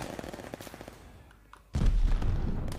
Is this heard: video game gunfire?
yes